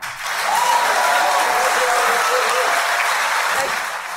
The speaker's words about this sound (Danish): Ja, her var der altså øh, klapsalver Joy Mogensen